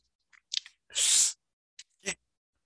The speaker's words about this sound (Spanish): deja, le doy un sorbido. Mm.